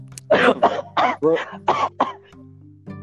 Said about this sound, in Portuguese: Não, não começa a tossir, não